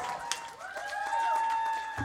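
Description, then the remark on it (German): An audience applauds in a steady, dense patter of many hands clapping for a couple of seconds, with a faint high ringing tone held underneath. “Einen großen Applaus”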